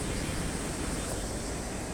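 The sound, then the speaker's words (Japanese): A steady, fairly loud roar of ocean waves washing onto a rocky shore, a continuous rushing wash with no distinct individual breaks, heard alone with some wind-like hiss. “ると波かぶります”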